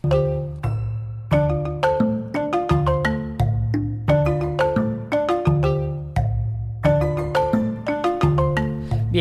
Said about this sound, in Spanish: he vuelto a la intro un poquito más antigua, aunque mañana volveré con la intro navideña.